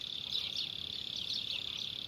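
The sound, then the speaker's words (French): A mole cricket trills at the end of the day on the plains of Cáceres near Trujillo, Extremadura, Spain, in a steady, unbroken buzz that swells slightly in places, heard alone against a quiet background with no voices. “Un insecte nocturne, une courtilière, rythme la fin du jour sur les plaines de Caceres.”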